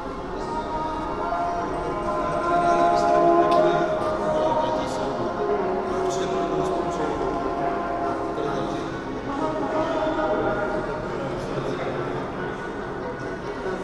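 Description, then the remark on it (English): A dense, continuous wash of many overlapping sounds and murmuring, voice-like tones from a big sound installation of audio recorders tied by tapes to white balloons flying in the air, layering together in a reverberant entrance hall, holding a steady, fairly loud level from start to finish. “A special kind of symphony is filling the space of the entrance hall.”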